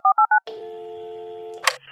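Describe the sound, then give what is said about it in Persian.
Four quick, evenly spaced telephone keypad tones beep in succession as a phone number is dialed again, followed by a steady line tone that holds for over a second before ending in a sharp click. “دوباره شماره رو گرفتم.”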